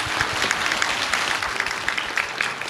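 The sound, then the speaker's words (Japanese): Sustained applause from a crowd at a Riso Kyoiku (理想教育) investor-relations seminar, welcoming the company's president: a dense, steady wash of many hands clapping at an even loudness throughout, with no voices standing out. “それでは皆様盛大な拍手でお迎えください”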